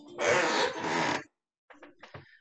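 A dog barks loudly, two harsh back-to-back barks, then after a short pause a few quieter, clipped barks follow.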